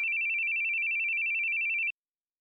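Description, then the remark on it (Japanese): A phone ringtone for an unanswered call sounds as a steady, slightly warbling electronic tone, clear, holding for about two seconds before cutting off abruptly. No voices accompany it. “出なくていいのかいいい。”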